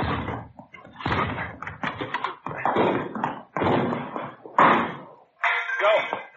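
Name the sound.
door being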